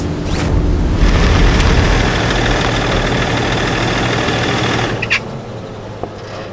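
A boat engine, left running, runs steadily and loudly, a continuous low rumbling drone with a mechanical rattle, easing slightly near the end with a couple of brief clanks.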